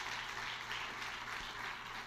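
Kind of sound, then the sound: crowd, applause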